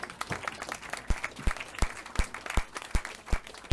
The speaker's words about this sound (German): Okay, Applaus.